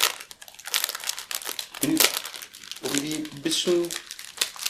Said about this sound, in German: Sorry, war aus der Packung friemeln hier.